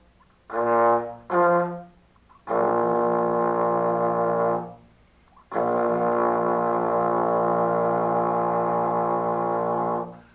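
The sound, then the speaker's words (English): A low, buzzy wind instrument sounds two short notes, then two long sustained tones a fifth apart, starting from low B-flat, played alone and loud, with brief silences between them. “So in, in this case, now we I relate now everything to the low B flat, and we, we start from there.”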